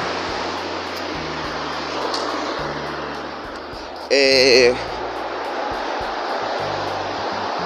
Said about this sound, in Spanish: A ver si se va a escuchar un poco el ruido porque estoy pasando abajo de un túnel. Les dije que vamos caminando, ¿va?